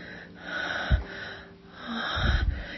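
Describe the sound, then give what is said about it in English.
Soft, breathy panting from a woman lying down, a few slow in-and-out breaths rising and falling in gentle swells, with a faint huskiness and no talking. “I lay there panting softly.”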